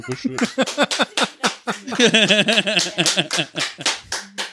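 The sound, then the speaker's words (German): Hand clapping in sharp, uneven bursts for several seconds, mixed with loud, high cheering and whooping voices that rise and fall over the claps. “Klatsch mir jetzt.”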